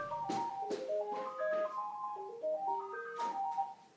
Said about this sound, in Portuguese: Gente, tá tocando meu telefone. Deixa eu ver quem é.